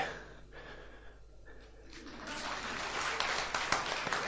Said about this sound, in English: You may, while observing a certain theatrical decorum of reserve, applaud me.